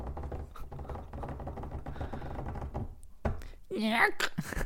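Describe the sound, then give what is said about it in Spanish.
A large drawer, brought along to store a trumpet, is pulled open and pushed shut, giving a few loud wooden thunks and a short scrape, after a stretch of muffled voice-like sound. “abrí el, ah, el, gran cajón que traje para guardar la trompeta.”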